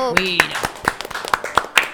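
A small burst of applause welcoming a presenter: a handful of sharp hand claps at an uneven, quickening pace, with a brief vocal cry over the first few claps.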